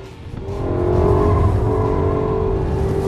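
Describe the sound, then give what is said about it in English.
A car engine roars at high revs, building in loudness over the first second and then holding a steady, harmonic drone, with no voices over it, as if the car is drifting. “Some serious drifting.”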